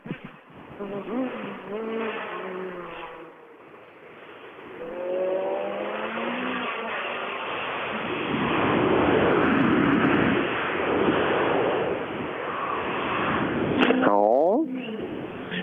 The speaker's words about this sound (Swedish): Det är inte det där riktigt, riktigt herrejösses sista som eh, ja, alla som har sett eh, den här killen köra rallybil någon gång, just ni vet det när det bara smäller i varenda rikeskant.